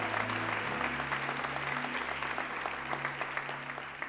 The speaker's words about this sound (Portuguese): Dê um brado ao Senhor e aplaude e adore.